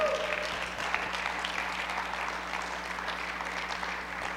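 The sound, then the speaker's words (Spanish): A church audience applauds the Lord steadily for several seconds, a dense, even patter of many hands clapping at a constant moderate level with a low steady hum underneath. “¿Alguien puede aplaudir al Señor?”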